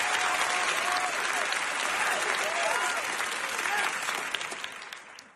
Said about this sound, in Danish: Det var bifald. Du, det var... Gav, du gav dig selv et bifald.